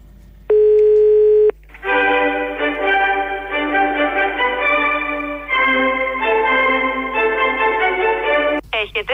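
A steady telephone dial tone rings out for about a second, followed by a dense, sustained, music-like electronic sound that fills the rest of the line.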